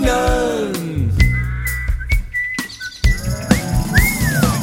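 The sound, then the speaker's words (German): A bright, clear whistled melody rises and glides through several short phrases, sitting over a full musical backing with bass and strummed instruments, fairly loud. “Wir pfeifen und wir lachen und springen.”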